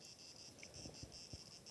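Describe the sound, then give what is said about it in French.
A cicada buzzes in steady, rapid pulses, a shrill insect drone that keeps going throughout, with a few soft low thumps underneath and no voices. “Ce qu'on devrait faire, c'est qu'après cette question-là, là, tu laisses le silence avec la cigale, là.”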